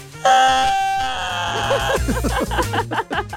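A large man weighing a good 94 kilos lets out a loud, shrill, high-pitched scream held for nearly two seconds, then it breaks off into excited talking and laughter-like voices.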